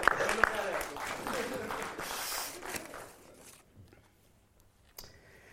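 A burst of audience applause, dense crackling claps that stay steady for about three seconds, then thin out and fade, with a brief thump near the end.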